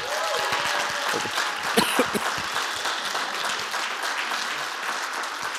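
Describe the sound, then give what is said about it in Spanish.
Loud, dense applause from a church audience in Ciudad Juárez, Chihuahua, Mexico, clapping louder when asked, a steady wash of many hands clapping for several seconds with a few sharper claps standing out near the start. “Un aplauso más fuerte, por favor.”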